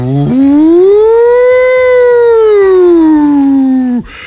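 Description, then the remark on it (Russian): A loud, sustained civil defense siren wail, tested over loudspeakers in the morning, swells upward in pitch, holds, then slowly sinks for about four seconds before cutting off abruptly, with no talking over it. “из-за этих громкоговорителей, потому что, да, вот когда утром, да, вот вот они, они, э, когда их проверяют утром, да, это звучит примерно так, да.”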